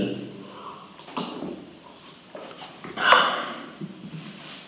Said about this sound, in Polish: Wezmę sobie łyczka wody jeszcze.